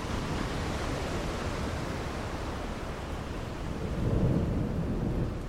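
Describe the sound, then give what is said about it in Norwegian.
Steady, dense rain hisses over a deep, continuous rumble of thunder, which swells louder near the end, during a February storm. No voices, just the storm. “Det er uvær hele februar.”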